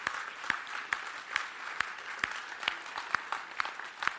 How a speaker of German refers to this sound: Wollen wir das machen? Lass uns doch mal einen großen Applaus geben. Wir freuen uns. Mega.